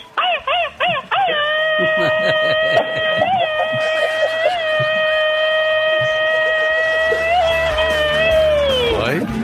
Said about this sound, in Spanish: qué padre … que que nos hagas el favor de acompañarnos y que pidas tu grito ametralladora